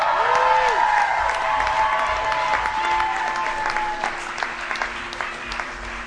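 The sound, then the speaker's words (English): A crowd breaks into loud, sustained applause with scattered cheers and whistles for a musician's manager, the clapping steady and dense throughout before easing slightly toward the end. “make some noise”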